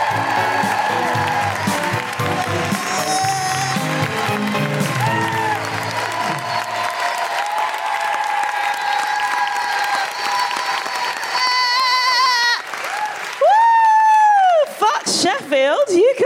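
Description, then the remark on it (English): An audience in Stratford-upon-Avon bursts into loud, dense applause for comedian Sophie Duker that gradually thins out, with high whoops and cheers rising over it and ringing out more clearly near the end. “Put your hands together and make an incredible woohooing noises for the wonderful Sophie Duker.”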